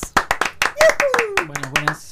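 Quick, steady hand clapping, about a dozen sharp claps in a row, with a drawn-out falling vocal whoop sliding down underneath partway through.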